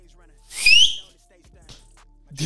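A person whistles briefly, a single upward-sliding note lasting about half a second, followed by quiet shuffling and a short soft noise at the end.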